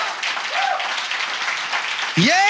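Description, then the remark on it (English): An audience claps steadily in a dense, continuous wash of applause, with a loud voice breaking in near the end over the clapping. “You should be clapping. You should be shouting.”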